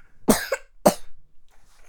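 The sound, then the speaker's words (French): Two sharp coughs about half a second apart, the first rougher and slightly longer, followed by quiet background with no talking. “Un tous gorge bah oui, parce que tu tousses en fait.”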